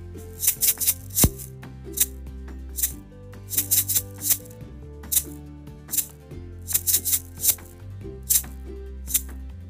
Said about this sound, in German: Auch zum Wochenende gibt es wieder eine Rasselaufgabe. Ihr könnt sie mitrasseln.